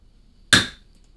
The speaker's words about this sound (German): So, das war, das war der Hammerschlag.